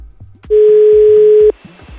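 A telephone line tone on an outgoing call placed by the Rádio Jovem Pan show Missão Impossível: one steady, low-pitched electronic tone held for about a second, loud and flat, with faint murmuring before and after.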